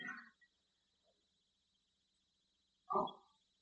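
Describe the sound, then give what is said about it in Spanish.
A dog barks in the background, two short sharp barks spaced a few seconds apart, with a faint steady high-pitched whine running underneath and no talking. “Parte de insabido los perritos que se escuchan en el fondo.”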